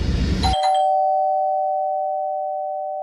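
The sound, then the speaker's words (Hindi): A doorbell rings once, a sharp electronic chime followed by a clear tone that lingers and slowly fades over a few seconds. It is fairly loud, with no voices. “hall में आते के साथ ही फोन से नेटवर्क गायब हुआ और साथ ही डोरबेल बजी”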